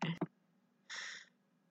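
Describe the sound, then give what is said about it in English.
A bird gives a short, harsh squawking call, with a brief burst of noise just before it. The call is fairly faint, with a low steady hum underneath. “Oh my god, if that bird doesn't shut up.”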